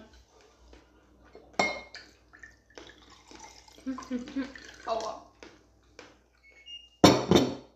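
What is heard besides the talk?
dishes clattering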